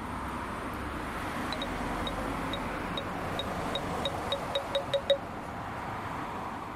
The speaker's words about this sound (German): Äh, das hängst du dir um die Schulter, hat drei Kameras und analysiert die Umgebung und dann hörst du praktisch Hinweistöne die ganze Zeit. Wenn man ein Beispiel einfach angenommen, ein Hindernis ist jetzt auf der linken Seite, dann hörst du das.